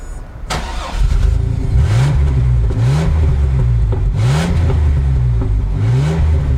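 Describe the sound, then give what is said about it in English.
A four-cylinder car engine, recorded in Reading, UK, cranks to life with a sharp burst, then revs in a steady series of rising pulls, loud, each climbing whine repeating about once a second. “Also sounds like a four cylinder.”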